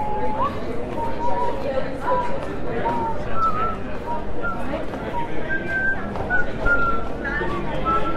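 Someone whistles a string of short, bright melodic notes, fairly close, over a constant background of crowd chatter and bustle.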